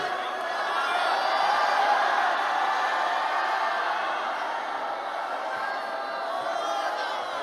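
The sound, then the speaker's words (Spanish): An audience shouting together on the leader's call during a Spanish-language prayer to Jesus for prosperity, a sustained, loud roar of many voices, a dense wash of crowd noise that swells slightly and holds steady for several seconds without pause. “Grítalo.”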